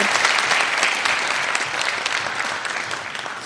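An audience claps steadily, a dense, bright patter of many hands that holds fairly even and then eases slightly toward the end, with no voices over it.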